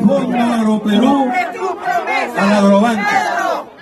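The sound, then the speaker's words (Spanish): A large crowd listening to a president's speech shouts and chants loudly together against the president, many voices overlapping in a sustained, rising roar with a few brief dips. “los que estaban ahí escuchando al presidente no estaban con el presidente, estaban también en contra del presidente.”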